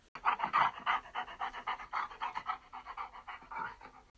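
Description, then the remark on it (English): A farm dog pants rapidly and excitedly, with quick breathy huffs repeating in a steady rhythm for several seconds and no other sounds around it. “When he saw the fairies land on the gate that divided the cow's field and the farmyard, he ran over to them with his tail wagging. He gave them a big lick, drenching them from head to toe in slobber.”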